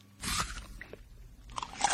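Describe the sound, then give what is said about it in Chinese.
Greedy eating: a merchant wolfs down a lavish dinner, two bursts of loud, crisp crunching bracketing a stretch of softer, wet chewing and munching, with no voices present. “他太高兴了，根本没有心思去想这体贴而又周到的主人到底是谁，于是就狼吞虎咽的大吃起来。”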